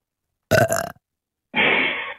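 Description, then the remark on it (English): Two loud burps after drinking a Red Bull energy drink, with a brief silence between them: a short, sharp one, then a longer, rumbling belch that trails on. No one speaks. “Let me get my Red Bull burp out of the way.”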